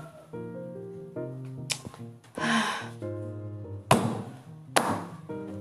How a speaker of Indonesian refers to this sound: coba kamu ambil pensilmu. Letakkan di atas kertas, lalu coretkan sesuatu.